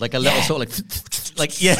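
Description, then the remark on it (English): A voice imitates a video game hit-marker sound, a quick, papery rasping in a few short bursts, like shuffled sheets, mixed in with speech and a laugh. “It's that weird little. It's almost like a like a stack of papers being shuffled”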